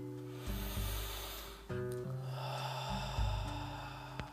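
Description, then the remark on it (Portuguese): A slow, deep breath drawn in and then let out, airy, over a soft sustained musical drone with no talking. “você vai respirando profundamente”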